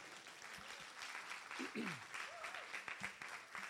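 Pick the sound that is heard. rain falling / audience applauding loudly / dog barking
audience applauding loudly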